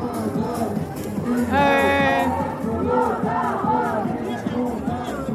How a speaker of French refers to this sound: on va peut-être laisser passer ce sublime cortège des Invertis, qui est un collectif queer trans.